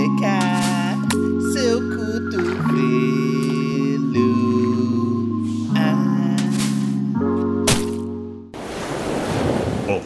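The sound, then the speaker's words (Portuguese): A short new program jingle with bright sustained chords over a bass line stepping through a few notes, ending abruptly in a loud rush of watery, bubbling noise. “vamos rodar uma vinhetinha nova do nosso programa”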